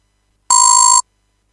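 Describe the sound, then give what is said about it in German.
A single harsh computer reminder alert tone for a note to add wood to the stove, about half a second long, with a strong steady pitch and bright buzzy overtones. It starts and stops abruptly and sounds alone, with no talking. “Selbst wenn wir jetzt nicht im Raum sind und haben jetzt das verpasst, dass der hochgeploppt ist, dieser Ton, der ist so fies, den hört man auch quer durchs Haus.”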